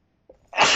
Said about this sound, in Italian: Scusate, ecco, dovevo starnutire, perciò mi sono fermata.